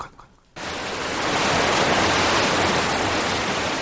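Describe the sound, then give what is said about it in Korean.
Water rushing down in a steady, loud roar from an artificial waterfall at a castle, starting abruptly after a brief quiet moment and continuing as a dense, unbroken wash of sound. “엘리우는 인공 폭포 아래 서 있는 시빌라의 마왕을 보게 됩니다.”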